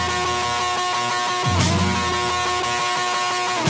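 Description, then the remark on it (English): Loud, distorted rock music with fuzzy electric guitar, and a sharp shouted scream bursting in about halfway through before the heavy guitar carries on. “Check out the scream at the oh, beginning here.”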